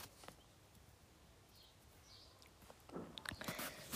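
Faint bird chirps drift over a quiet outdoor background on a terrace in nature, followed by crackling and rustling noises near the end.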